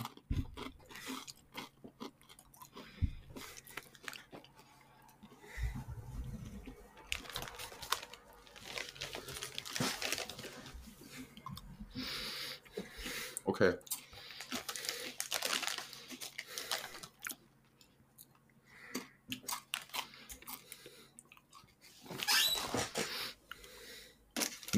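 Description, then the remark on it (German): Crunching of chips being chewed, mixed with repeated crinkling of a plastic chip bag, irregular bursts of noisy rustle and crunch filling most of the stretch with no talking. “Ey, du, siehst es jetzt nicht, aber ich habe auch Chips.”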